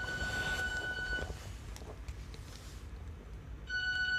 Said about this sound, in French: Alors il y a un réveil qui sonne, ce n'est pas moi.